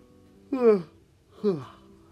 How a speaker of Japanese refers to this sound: 失礼いたしました、ね、あくびが出てしまいました